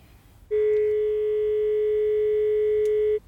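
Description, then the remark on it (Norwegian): A steady electronic phone tone from a mobile phone set on speakerphone to call the emergency number 113 sounds continuously for nearly three seconds, starting abruptly and cutting off cleanly, heard through the phone's small speaker with no talking. “Finner jeg eh, mobilen som ligger på hylla, og så setter jeg den på høyttaler, og så ringer jeg til 113.”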